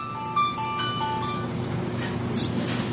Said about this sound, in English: there goes my phone.